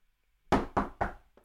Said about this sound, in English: Knock on wood.